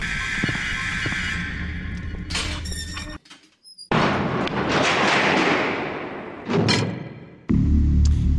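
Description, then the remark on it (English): A heavy metal bunker door grinds and rumbles as it slides shut, ending in loud, booming clanks and a final deep thud that locks it closed. No one speaks. “I love that door, but eventually I think we're going to have to escape the bunker”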